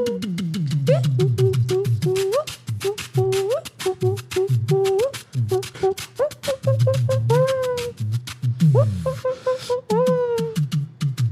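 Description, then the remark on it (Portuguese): A voice imitates a cuíca, squeaky rising and falling pitch glides repeated in a steady samba-like rhythm over low percussive vocal thumps, continuous and fairly loud throughout. “Só a cuiquinha.”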